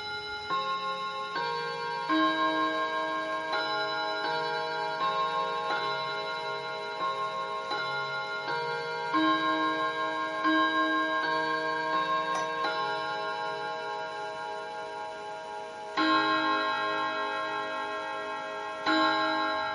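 Westminster quarters rung on clock chimes: a sequence of sustained, ringing bell tones in a stately descending and rising melody, each strike blooming with overtones and fading under the next. No talking.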